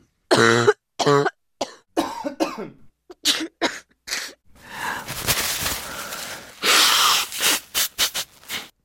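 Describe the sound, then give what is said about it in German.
A series of harsh coughs and throat clearing from a respiratory illness, some with a rough, wheezy rasp, in irregular bursts, followed by noisy, congested breathing and a few more short coughs. “Ja, genauso hört sich das bei vielen gerade an. Fast acht Millionen Menschen haben eine akute Atemwegserkrankung.”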